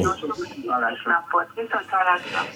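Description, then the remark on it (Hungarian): A radio plays, carrying a steady stream of muffled, tinny voice that rises and falls in short phrases, fairly loud and continuous throughout. “Művész úr, halkítsa le a rádiót.”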